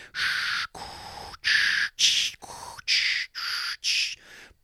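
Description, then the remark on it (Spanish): A voice imitates ocean waves with about eight breathy, shushing bursts in a steady rhythm, each swelling and cutting off. It is fairly loud, with no talking. “Por ejemplo, cuando filmas en el mar es una bronca porque por más buen micrófono que tengas, siempre vas a escuchar de fondo las olas.”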